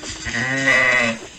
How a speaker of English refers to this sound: Goat. Go. Sheep. sheep. A sheep. Good job.